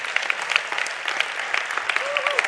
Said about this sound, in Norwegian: Men fra ett sted til ti steder bare i løpet av et år. Ja, det må dere også gjerne klappe for, for det syns jeg i hvert fall er veldig kult.